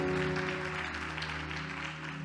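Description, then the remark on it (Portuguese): A church audience applauds steadily, a dense wash of many hands clapping, applauding God for the life of a newborn baby, with sustained organ-like tones humming underneath throughout. “Você pode aplaudir a Deus por essa vida?”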